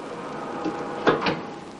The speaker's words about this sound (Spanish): El ascensor sube hasta la tercera planta. Las puertas se abren